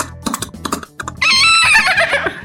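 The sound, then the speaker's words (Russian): A beatboxer and sound imitator vocally imitates a horse: a few short clicking clip-clop beats, then a loud, shrill whinny with a quavering, descending pitch, clear with no talking. “Изображаю разные звуки, типа, например, лошадь.”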